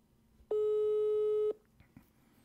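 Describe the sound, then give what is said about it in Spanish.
A single steady electronic telephone tone sounds for about one second, loud and clear, against a low background murmur, then cuts off abruptly, as a dropped call is being redialed. “Vamos a llamarlo de nuevo.”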